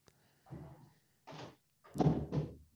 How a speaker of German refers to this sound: Ähm, so, ich habe kurz meine Tür zugemacht.